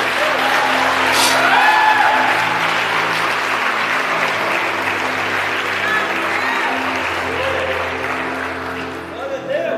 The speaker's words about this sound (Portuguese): Aplauda Jesus por isso.